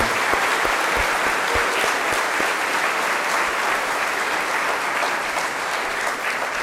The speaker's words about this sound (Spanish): Muchas gracias, papás. Les damos un aplauso. Bien merecido se lo tiene.